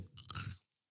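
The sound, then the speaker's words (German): Brief crunching of chewing gum being bitten and chewed, a few quick moist crunches lasting about half a second before fading into silence. “Und den soll ich jetzt kauen?”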